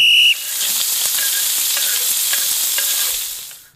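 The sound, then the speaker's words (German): Food sizzles steadily in a hot pan, a dense hissing crackle with scattered pops, fairly loud, starting after a brief high tone and fading out at the end. No one speaks. “Da knus ähm, knuspert's wieder. Brutzeln kommen. Äh, da, Brutzelt.”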